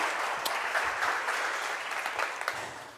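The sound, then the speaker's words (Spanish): An audience at a worship gathering claps steadily to welcome a new guest joining the worship group, a dense crackle of many hands sustained at an even level for the full three seconds, with no voices over it. “obviamente te voy a presentar para que tengan un aplauso.”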